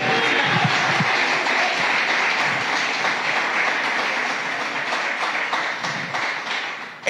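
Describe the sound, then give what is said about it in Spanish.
An audience breaks into sustained, dense applause for Jesus during a sermon, many hands clapping steadily at a loud, even level for about seven seconds with no voices on top. “¿Y cuántos de ustedes le dan un aplauso a ese Jesús maravilloso?”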